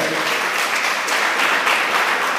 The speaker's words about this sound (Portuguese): Vamos aplaudir Senhor, é maravilhoso.